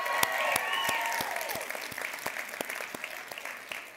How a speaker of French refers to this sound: Très content que vous soyez là et vous pouvez déjà vous applaudir. On a une foule record ce soir!